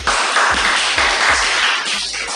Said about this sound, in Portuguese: Hoje estamos aqui reunidos em círculo, eu e os alunos do nono ano Ah, Palmas para eles!